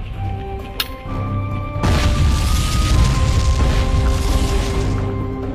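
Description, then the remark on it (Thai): A single heavy cannon boom from a 152/32 mm disappearing coastal artillery gun, built by Sir W.G. Armstrong of England and raised by hydraulic oil pressure to fire, erupts partway through, followed by several seconds of loud, rolling rumble that slowly fades. A steady low tonal drone runs underneath, and nobody speaks. “Armstrong ประเทศอังกฤษ ระยะยิงไกล 8กิโลเมตรติดตั้งอยู่ในหลุมปืน ยกตัวขึ้นด้วยแรงน้ำมันไฮดรอลิกในเวลายิงยิง”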